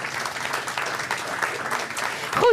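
An audience claps steadily, a dense, continuous patter of many hands at fairly even loudness, swelling slightly at the end where a brief voice or whistle-like tone cuts through.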